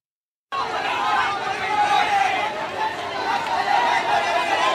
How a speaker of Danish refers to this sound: Det her det er lyden af flere tusind ældre, der de seneste dage har været øh, på gaden i protest.